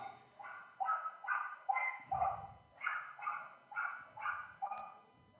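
small dog barking

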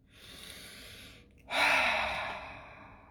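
deep breath

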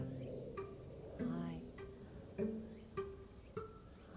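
cicadas chirping outdoors

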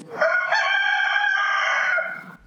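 rooster crowing

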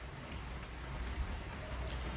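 heavy rain falling outside

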